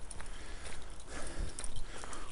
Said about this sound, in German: So, wie ihr seht, ich bin im Wald. Man hört das äh, auch hoffentlich ein bisschen